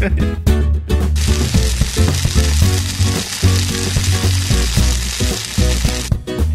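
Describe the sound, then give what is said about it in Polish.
Onions sizzle and stew in a hot pan, a dense, steady crackling hiss that rises after the first second and stays loud throughout, with no talking; the onion is stewed for a long time, 25 to 40 minutes, until it melts down. “I to się dusi bardzo długo.”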